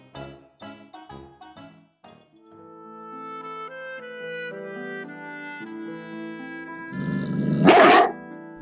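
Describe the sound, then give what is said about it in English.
A short, rough growl from a big dog bursts out near the end, loud, after a stretch of plucked notes and sustained melodic music with no talking. “The dog growls and says, You are an ugly duckling.”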